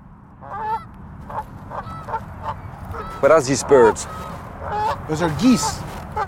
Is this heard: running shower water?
no